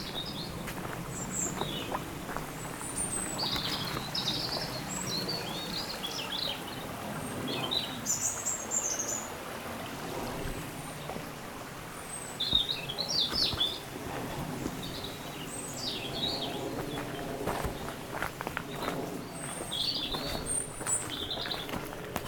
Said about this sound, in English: wanted to pause there and let you enjoy the uh, the bird song and the, the stream. Yes. Very, uh, very, very good. Nice for us to see some uh, water in the stream because it's, it's been, been, a bit very, dry, isn't it?